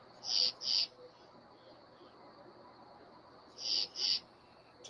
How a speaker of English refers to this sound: Crickets. Crickets and peeper frogs.